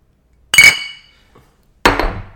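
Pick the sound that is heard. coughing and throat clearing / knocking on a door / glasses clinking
glasses clinking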